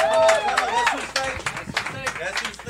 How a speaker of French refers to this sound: On l'applaudit.